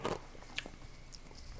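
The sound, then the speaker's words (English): Someone crunches ice: a burst of crunching at the start, then a few sharp bites and crackles scattered across a quiet background, with no talking. “as you guys get to listen to me chew ice, sorry about that.”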